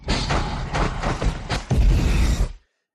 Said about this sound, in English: so in this film, there's a swamp where fire belches from holes in the ground, and before that fire appears, you hear a popping sound, distinctive popping sound. It sounds a little bit like this.